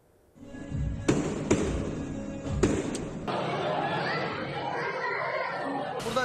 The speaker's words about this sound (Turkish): İstanbul Esenyurt'taki sokak düğününde atılan havai fişek bir binanın çatısını yaktı.